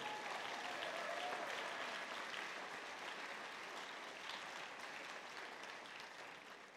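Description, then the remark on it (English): An audience claps together as a clap offering to God, in a steady, dense burst of applause that holds strong throughout and fades only slightly toward the end, with no speech over it. “Go and give God a clap offering.”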